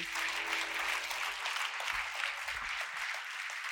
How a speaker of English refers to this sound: Come on, give the Lord a hand clap of praise if you know you're unstoppable.